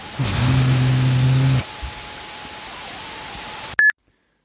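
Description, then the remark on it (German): Loud static hiss on a phone or audio line, a harsh burst with a low hum for over a second, then a fainter steady hiss, ending with a short electronic beep. “Du hast ein krasses Rauschen in der Leitung.”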